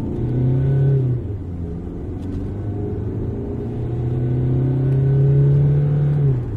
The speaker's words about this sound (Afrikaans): Die nuwe 2 liter turbo diesel is tipies diesel, bietjie grof wanneer koud maar relatief glad en stil op die oop pad. En in die Allure topmodel werk hy baie goed in tandem met 'n 6-spoed outomaties.